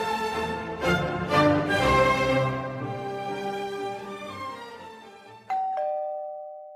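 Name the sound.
doorbell ringing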